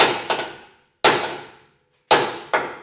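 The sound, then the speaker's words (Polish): Hammer blows ring out against metal, straightening one of the arms that holds a car bumper while the bumper is being replaced. About five sharp, loud strikes, some in quick pairs, each leaving a bright metallic ring that fades before the next hit. No voices. “To były dźwięki y, młotka.”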